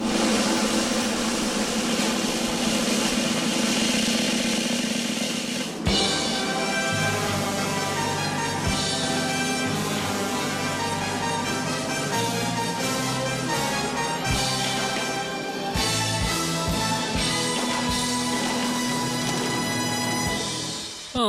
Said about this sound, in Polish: no to Michale zaprezentuj dżingiel, aby już wszystko stało się jasne